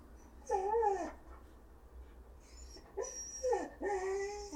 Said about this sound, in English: My um, dog is super chatty.